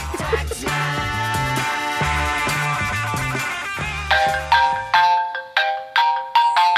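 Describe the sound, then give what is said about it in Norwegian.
A telephone rings with a bright electronic melody, looping a short bouncy tune over a low bass pattern, then ending in several ringing, chime-like notes that fade out. No one speaks. “Ah, du kjenner på det når telefonen ringer og du, du, du, er livredd for at det skal være kemner og namsmann og nå kommer de og tar tingene dine.”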